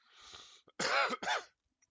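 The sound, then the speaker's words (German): A person forcefully clears their throat with harsh, raspy hacking, imitating someone choking on a piece of bread: a breathy scrape followed by two loud, gravelly bursts, alone without speech. “ich glaube tatsächlich sogar ein Stück Brot äh, in den Hals gekriegt, hat die ganze Zeit versucht, das rauszukriegen,”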